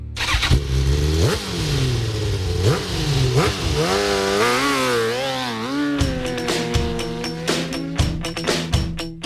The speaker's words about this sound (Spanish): las motos.